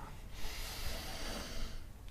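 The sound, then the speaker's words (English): A single deep, airy diaphragmatic breath, breathing fully in and then letting go, rushes into the mic for about a second and a half, a steady hissing whoosh with no talking around it. “Try and do good diaphragmatical breathing.”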